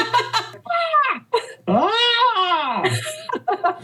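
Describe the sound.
A voice lets out a few loud, drawn-out yells that rise and fall in pitch, imitating the Wilhelm scream movie sound effect, with short breaks between them.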